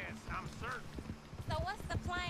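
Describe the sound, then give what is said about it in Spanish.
Western-style video game audio from Redemption, a cowboy shooting game being played, in the background: steady clip-clopping horse hooves with chirpy, muffled vocal sounds layered over them, moderately loud and continuous. “Bueno, decir que se va a escuchar un poco de audio de otra cosa porque estoy jugando.”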